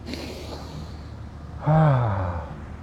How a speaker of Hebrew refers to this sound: הנה, נשימה אחרונה.